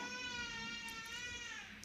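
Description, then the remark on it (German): A baby cries in one long, sustained wail that sags slightly in pitch toward the end. It is moderately loud, with no talking over it. “Warte mal, das Baby.”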